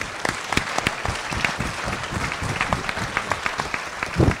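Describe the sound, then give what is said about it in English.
An audience at an evening TVO event applauds filmmaker Larry Weinstein, clapping steadily for several seconds, a dense, crackling patter of many hands with sharp individual claps standing out, holding fairly loud and even throughout. “How about another round of applause for Larry Weinstein?”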